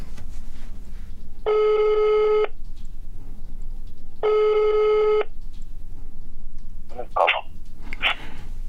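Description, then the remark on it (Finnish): A telephone ringing tone sounds twice, each a steady buzzing ring about a second long with a pause between, heard through a phone line, followed by a couple of short chirpy sounds. “niin pitäisikö meidän kuule kysyä sitä? Soitetaan”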